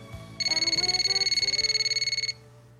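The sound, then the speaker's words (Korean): A telephone rings in one continuous burst of rapid, pulsing trills lasting about two seconds, clear, then cuts off abruptly as the call is answered, leaving a quiet background hum. “나 선배한테 전화해 볼래.”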